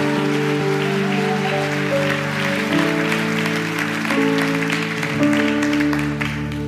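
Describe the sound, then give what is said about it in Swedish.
A large crowd in a church applauds steadily for several seconds one evening, a dense even clapping that holds at the same level throughout, with sustained keyboard-like chords playing underneath and shifting a couple of times. “Jesus en till stor applåd den här kvällen om du är tacksam.”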